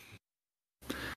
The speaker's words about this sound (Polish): Drzwi się zamykają.